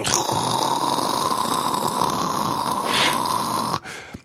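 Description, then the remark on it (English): A voice imitates a dense swarm of jungle ants, holding a steady, raspy buzzing hiss for nearly four seconds before it abruptly cuts off. Fairly loud, with no words spoken. “And my friend turns to me and he goes, It's the ants. Mm. I go, What? He goes, Listen, those are ants.”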